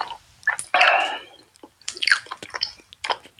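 Wet, smacking chewing noises from a caller's mouth on a voicemail message: irregular squelchy clicks and sticky lip smacks in quick bursts, fairly loud, with no talking.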